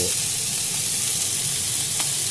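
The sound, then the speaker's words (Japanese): Chicken thigh fried with cabbage, shimeji and hiratake mushrooms sizzles steadily in a pan, a dense, even crackle and hiss that holds at a constant level, with a brief faint tick partway through and no voices. “鶏のもも肉を焼いていてある程度焼けたらそこにキャベツと”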